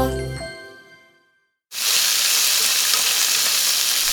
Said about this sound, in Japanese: 今朝はシャキシャキキャベツを使った焼きそばのいい音それではお聴きください